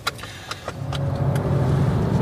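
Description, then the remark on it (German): A brand-new, fully electric Renault Zoe small car pulls away and picks up speed, its low hum swelling after a few faint clicks and then holding steady, with no one talking. “Ähm, aber die Beschleunigung ist äh, ganz beeindruckend von dem kleinen Ding.”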